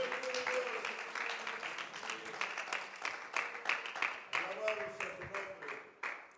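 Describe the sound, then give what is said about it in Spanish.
A crowd applauds steadily as praise to God, dense overlapping claps, with voices calling out and singing beneath the clapping throughout. “Puede abrir sus labios y darle alabanza, darle gloria, darle honor, darle aplausos aquel que se complace de escucharte”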